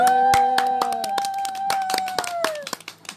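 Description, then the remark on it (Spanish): A small audience applauds to welcome a guest to a show recorded while sitting in the mud, with scattered, uneven claps for about three seconds, while a steady held tone runs underneath and slides down in pitch before the clapping thins out. “Pero bienvenido, un aplauso.”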